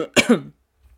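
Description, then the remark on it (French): A single harsh cough from a person who is ill, with a quick follow-up burst, sounding raspy and throaty, then fading into near silence. “Alors je tousse encore, euh, je suis malade encore, je vais vous raconter après.”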